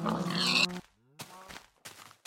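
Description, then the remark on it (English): A loud pig oink opens, a rough grunting squeal lasting under a second, followed by a couple of shorter, quieter snorting grunts. “Gasp and moo and oink and slice.”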